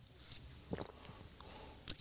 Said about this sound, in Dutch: Sorry dat ik net een vraag stel als je een slok water neemt.